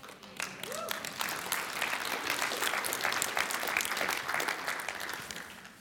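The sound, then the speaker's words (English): A crowd bursts into sustained applause, dense overlapping claps holding steady at a loud level for several seconds, with a brief voice or cheer rising near the start. “Can you clap again on that?”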